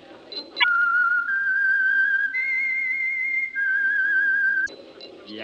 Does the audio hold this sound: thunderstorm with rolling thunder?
no